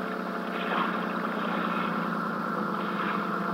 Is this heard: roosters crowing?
no